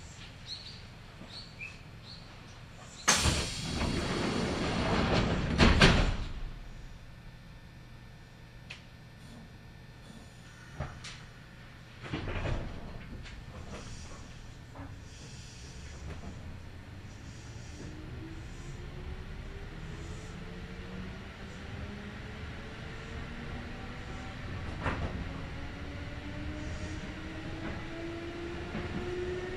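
A Kintetsu Nagoya Line local (all-stations) train runs along the rails between Shiohama and Shiroko in Japan, with a steady low rumble and rhythmic clatter, rising to a loud burst early on, then rolling on with rising and falling pitch tones as it gathers speed.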